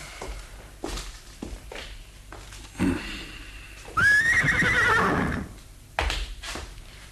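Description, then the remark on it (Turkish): A horse lets out a loud, drawn-out whinny after a series of sharp hoof clops on hard ground, with more clopping following; no one speaks. “Atlar hazır baba.”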